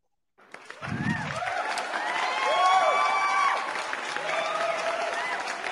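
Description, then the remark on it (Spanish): A crowd bursts into steady, loud applause for a singer from Mexico after a brief low thump, with scattered cheers and whoops rising over the clapping and sustaining it for several seconds. “El aplauso para él.”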